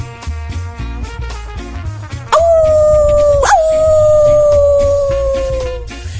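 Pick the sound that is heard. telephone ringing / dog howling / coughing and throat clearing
dog howling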